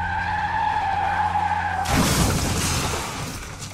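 A bus's tires screech in a long, loud skid with a steady tonal whine as the driver loses control on a curving downhill road beside a drop, then cut abruptly into a noisy crash as the bus overturns into a shallow ravine, with scattered debris and rumbling that slowly fades.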